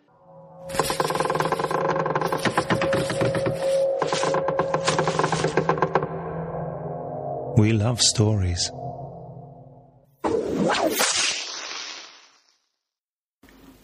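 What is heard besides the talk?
train passing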